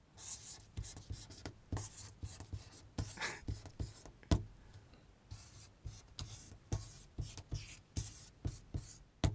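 A pen scratches across paper in quick bursts of strokes, writing the Roman letters OIL, with sharp taps and short pauses between letters, ending on a firm dot as a period. Nobody speaks.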